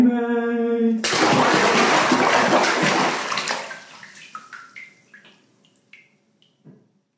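A brief steady hum gives way to a loud rush of sloshing water in a cold bath, which fades over a few seconds into scattered drips and small plinking splashes.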